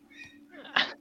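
A single sharp sneeze bursts out near the end, loud, following a brief intake of breath, with a low steady hum running underneath throughout.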